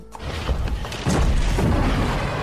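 The middle billy goat's hooves clomp across a wooden bridge in a loud series of heavy, hollow thuds over a deep rumbling background, with no voices.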